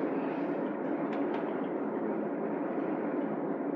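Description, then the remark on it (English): A train rumbles past in a steady, dense roar with a couple of brief higher squeals early on, loud throughout, with no voices. “You have a shot of the train going in, and then it's over.”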